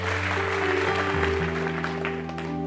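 A standing audience at a religious gathering claps steadily and continuously at the close of the service: a dense crackling wash of applause mixed with loud sustained keyboard chords that shift pitch a few times.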